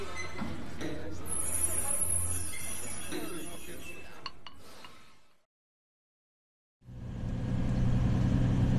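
A bus engine idles with a low, steady rumble and occasional light clinks and rattles. The sound drops to silence briefly, then the deep engine drone returns.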